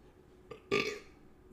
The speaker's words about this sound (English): Sorry, a little gas there.